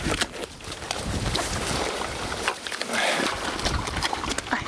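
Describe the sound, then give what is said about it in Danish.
Pigs outdoors grunt and snuffle as someone brings them food, a dense jumble of grunts and snuffling, fairly loud and continuous with rough, noisy texture throughout, no distinct pauses. “I søde grise.”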